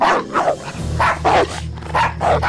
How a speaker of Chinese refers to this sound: 狼和狗不断地隔着帐篷互相抓咬，谁也不能战胜对方。